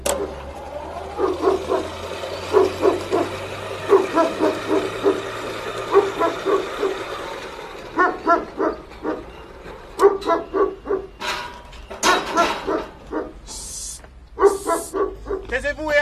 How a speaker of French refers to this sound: Vous pouvez ouvrir la porte et dire à vos chiens de se taire. Sinon, la petite va se réveiller.